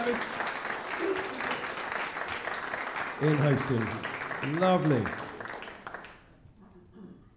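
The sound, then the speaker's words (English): Sustained audience applause, a dense crackle of many hands clapping for about six seconds, with a voice speaking over it before the clapping cuts off abruptly into near silence. “So can we just give these guys a round of applause?”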